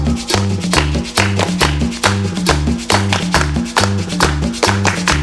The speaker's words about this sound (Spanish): Bien, bien, bien, bien, muchachos, con las palmas al ritmo, con las palmas al ritmo.